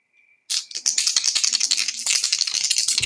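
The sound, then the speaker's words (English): Dice rattle loudly and continuously in a cup or hand for about two and a half seconds before a roll that comes up five, a dense, rapid clatter of hard clicks, after a brief faint tone. “Yeah, I rolled five.”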